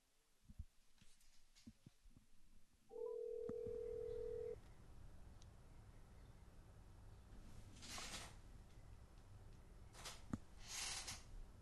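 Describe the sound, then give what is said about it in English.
A telephone tone sounds steadily and loudly for about a second and a half as a phone call is being placed, followed by line hiss and a few brief bursts of static. “Now, let me let me get Ron Reyes on the phone, and I'm a few minutes late for that, which I did not intend to be.”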